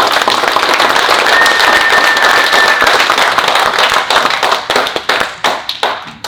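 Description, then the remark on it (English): Dense audience applause fills the first few seconds, then thins out into a scattering of individual sharp claps that fade away. No one speaks over it. “So we need to acknowledge her, give her a round of applause, and thank her because her work is cut out.”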